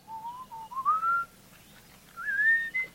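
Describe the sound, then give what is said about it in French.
A melodious human whistle used by Rasda hunters in Tanzania to attract a honeyguide bird and keep contact with it while following it: two rising, gliding phrases separated by a short pause, clear, with no talking. “Et les chasseurs Rasda en Tanzanie, comme les chasseurs Borana au Kenya, utilisent un sifflement particulier pour attirer l'oiseau et pour maintenir le contact avec lui pendant qu'ils le suivent. C'est un sifflement mélodieux.”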